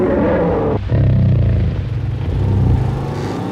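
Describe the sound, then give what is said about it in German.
A VW Beetle engine runs with a loud, steady low rumble and a throaty clatter, briefly dipping early on before picking back up, with no voices. “Das ist der berühmte VW Käfer, nicht zu verwechseln mit der Ente.”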